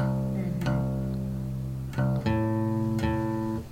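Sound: guitar being tuned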